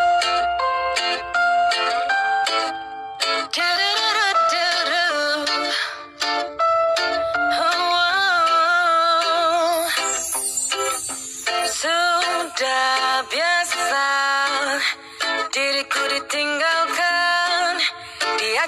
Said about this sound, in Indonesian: Nah, sebelum lanjut ke berita berikutnya, kita dengarkan lagu slow